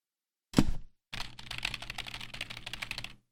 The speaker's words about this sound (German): Da tippen sie schon die Haters. Ja, da war, da war es nämlich.